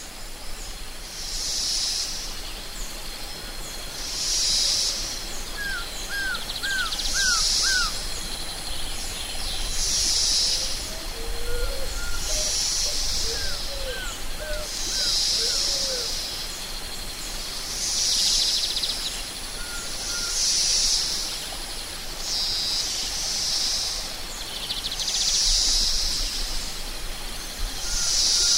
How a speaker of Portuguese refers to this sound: Aos poucos, você começa a se sentir envolvido pelos sons da floresta e a despertar todos os seus sentidos para contemplar esse momento.